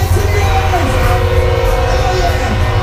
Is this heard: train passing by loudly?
yes